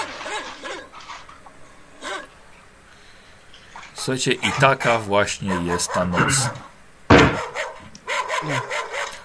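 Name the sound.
dogs barking and yapping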